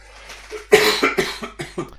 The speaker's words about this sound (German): Der Hustende. Ja, genau. Ein Schlückchen gerade.